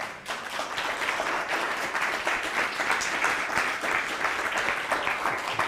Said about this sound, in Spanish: Entonces, denle un fuerte aplauso al bendito sea.